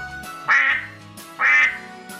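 Two loud, nasal duck quacks about a second apart, each a short harsh burst, with no talking and only a low background hum between them.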